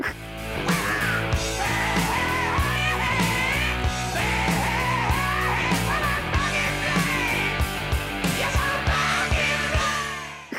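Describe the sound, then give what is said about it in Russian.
A man yells into a microphone in a raspy, high-pitched hard-rock style over loud, steady drums and distorted guitars, sustained for about ten seconds. “тут надо было тоже как этот, как … заорать, короче, микрофон, типа, …!”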